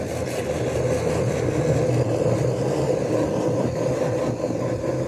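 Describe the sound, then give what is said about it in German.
An electric blender motor runs steadily and loudly throughout, a strained, continuous whirring drone as it churns through thick jam, with no voices over it. “Das ist für den Mixer jetzt harte Arbeit.”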